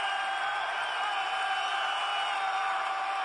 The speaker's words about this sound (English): That's pretty much the sound of the whole game from the stadium